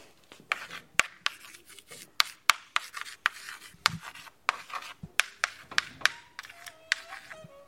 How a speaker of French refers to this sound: qui est en train d'écrire au tableau. C'était la classe de CM1, CM2